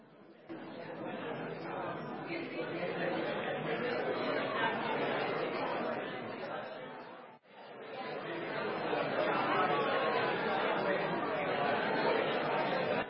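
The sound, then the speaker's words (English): An audience of people chatting with the person next to them about their favourite place to view the Blue Mountains, a dense, steady murmur of overlapping conversations with no single voice standing out, briefly dipping midway before resuming just as busy. “turn to the person next to you, tell them where is your favorite place to view the Blue Mountains?”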